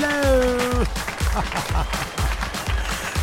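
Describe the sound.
A burst of applause, dense clapping with a crowd-like wash, opening under a brief sustained voiced tone that glides down and fades, then continuing steadily with low thumps.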